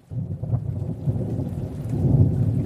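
A thunderstorm: deep, continuous rumbling thunder rolls over steady rain, swelling slightly louder toward the end. No voices are heard.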